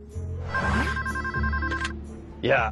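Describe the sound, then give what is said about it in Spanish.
A telephone bell rings with a steady, bright electronic trill for about a second and a half over a low background hum, followed by a brief burst of other sound. “Antes, si querías hacerte el enfermo para no ir a trabajar, tenías que llamar por teléfono con voz afectada.”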